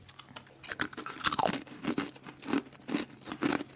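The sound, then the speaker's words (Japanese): Crunching of crisp Japanese rice crackers (okaki) seasoned with powdered simmered locusts being chewed, a steady series of sharp, dry crunches repeating about twice a second, with no talking. “まずは、イナゴおかき。全然見た目普通のおかき。”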